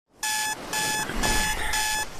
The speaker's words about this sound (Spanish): Imagínate tus mañanas, pero sin el ruido del despertador.